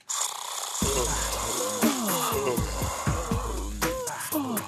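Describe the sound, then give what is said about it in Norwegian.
A celebrity yawning loudly, with drawn-out, sliding vocal groans that rise and fall in pitch, over a steady low background hum. “I denne konkurransen så er det en kjendis som gjesper.”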